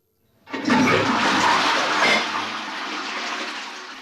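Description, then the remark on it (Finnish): A toilet flushes with a sudden loud whoosh of rushing water that holds steady, then eases slightly into a softer, continuous gurgling drain as the tank refills. No voices are heard. “Kun käyt antibioottikuurin aikana vessassa, jäteveteen kulkeutuu antibioottijäämiä, pyykinpesusta mikromuoveja.”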